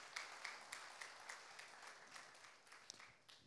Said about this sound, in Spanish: Te voy darle una ofrenda de palmas al Rey.